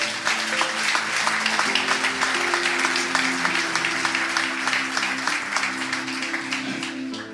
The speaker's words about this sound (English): So let's give them a, a round of applause for that.